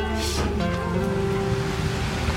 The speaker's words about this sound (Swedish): Det, det regnar ju.